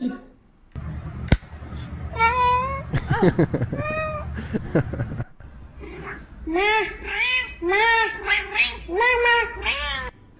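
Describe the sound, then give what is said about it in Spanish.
A cat in a cat video meows repeatedly in drawn-out, wavering cries, loud, with a sharp click early on and a steady background hum throughout. “Ahí está, videitos de gatos.”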